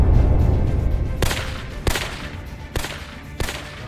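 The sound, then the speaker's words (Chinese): Four sharp, sudden gunshot cracks ring out at uneven intervals over a low, steady rumble, one of them hitting a fleeing intelligence agent. There is no talking, and each shot cuts off quickly. “枪声响起，其中一个情报员被枪打中，跌倒在地上。”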